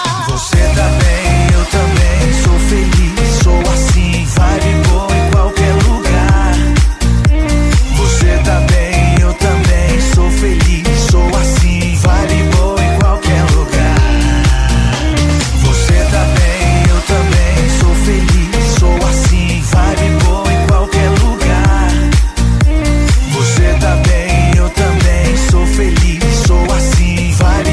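A loud, upbeat pop song plays continuously with a steady beat, punchy bass and bright layered synths, with no speaking voice over it.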